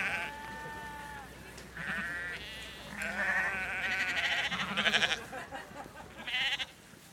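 Several sheep bleat one after another and sometimes overlap, wavering cries from a small flock, with no talking and a low outdoor rumble underneath.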